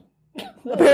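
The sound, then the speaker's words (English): After a moment of silence, a voice mimics a pasty bursting with a short, loud, spluttering cough-like pop that swells at the end. “that's the sound of a pasty exploding.”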